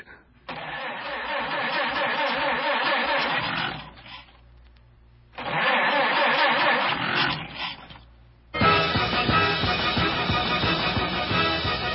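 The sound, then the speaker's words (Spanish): An old, shabby automobile that Sherlock Holmes walks off toward cranks loudly twice with a sputtering, grinding churn, pausing between attempts, then catches on the third try and keeps running with a steady rough rumble. “Holmes se alejó hacia esa cafetera inmunda que el hombre de nuestros días ha dado en llamar automóvil.”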